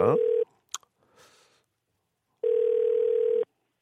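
A steady, mid-pitched telephone tone as a radio host places a call to a listener, sounding in two bursts, a short one and then a clear one-second tone after a pause, with a brief click and faint rustle between them.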